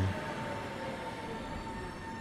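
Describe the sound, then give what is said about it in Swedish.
A steady rumbling ride on rails, with a continuous low drone, broad hiss and faint tonal whine, as a number 4 tram rolls in to the city centre at an even pace, with no voices. “Tog eh, fyran spårvagn in till centrum.”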